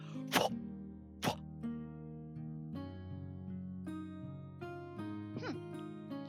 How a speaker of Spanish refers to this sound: Pone la caja, la abre. Ves que mete la mano y presiona algo y sale corriendo hacia ti. ¡Ah! Y de esta caja sale una enorme, enorme, enorme carpa palapa cosa de tela que se